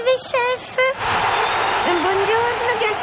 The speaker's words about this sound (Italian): questi applausi non è per te, è per tua squadra.